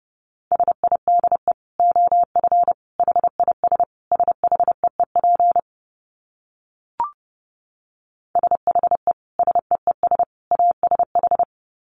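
Rapid Morse code at about 30 words per minute: a steady mid-pitched tone keyed into quick dots and dashes, in two runs separated by a short silence with a single faint click.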